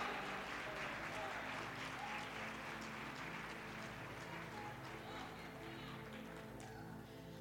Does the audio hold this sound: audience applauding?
yes